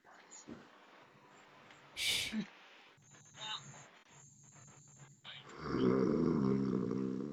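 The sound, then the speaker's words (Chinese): A low, rough snore rumbles loudly through the final seconds, preceded by a brief noisy burst and faint, muffled voices in the background. “我听到谁打了个呼噜，我刚听到有人打了个呼噜。”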